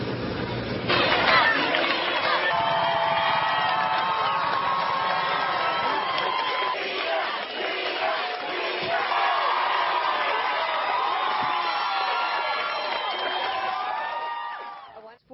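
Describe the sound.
A large crowd cheers and shouts continuously, with excited whoops and overlapping voices rising and falling, plus occasional sharp bangs, filling the whole stretch at a steady loud level.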